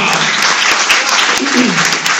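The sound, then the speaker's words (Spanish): During a sermon, an audience bursts into steady, dense applause for the name of the Lord, many hands clapping loudly and continuously with no pause, a bright rushing wash of claps throughout. “¿Por qué no le das un aplauso al nombre del Señor?”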